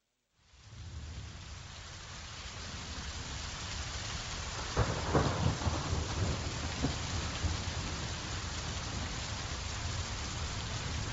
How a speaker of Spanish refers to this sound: tormenta.